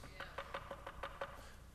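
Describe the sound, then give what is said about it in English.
A steady run of about seven quick knocks on a hollow, resonant surface, evenly spaced, depicting Peter knocking at a door, with no one speaking. “The text says, Peter kept on knocking because there's some doors you'll never get through until you keep on doing this.”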